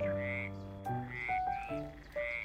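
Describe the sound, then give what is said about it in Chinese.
A small frog in the water croaks three times in a row, each call a loud, buzzy, tonal note with a bright overtone, the pitch stepping slightly between calls, with no voices. “小青蛙在水里时隐时现。”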